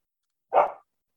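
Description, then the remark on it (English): A single sharp bark from Olive, a pet dog barking at the cat, short and fairly loud, standing alone against silence with no voices around it. “Now the dog's barking at the cat.”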